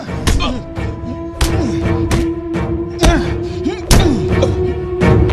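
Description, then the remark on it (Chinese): A beating during a coerced interrogation: about seven heavy, sharp punches and thuds land at an irregular pace over a steady droning tone, with voices murmuring underneath. “动手逼供的是胖虎，新仇旧恨加在一起，打的那叫一个过瘾。”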